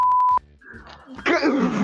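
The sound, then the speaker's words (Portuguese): A short, loud, steady high-pitched censor bleep cuts in at the start over a spoken name, then gives way to muffled talking and a sudden noisy burst of voices. “Eu vou ter que colocar um bip.”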